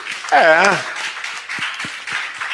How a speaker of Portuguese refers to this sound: Você pode dar uma salva de palmas ao Senhor aí? É.